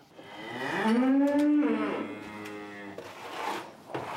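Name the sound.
cows mooing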